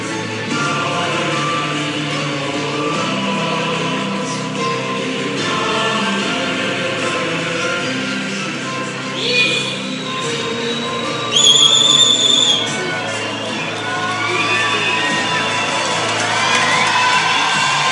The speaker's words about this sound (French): Je vous laisse maintenant écouter le départ de cette course 2022 de l'UTMB avec la musique qui nous fait tous euh, dresser les poils.